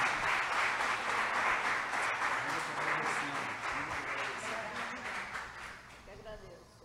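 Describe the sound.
Sustained applause from an audience at an Umbanda religious gathering, dense and steady for several seconds before gradually thinning out, with a few voices talking underneath the clapping.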